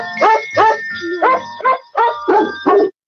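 Dogs barking in a quick, steady run of about eight loud, yelping barks, each short and slightly tonal, with brief gaps between them and no talking.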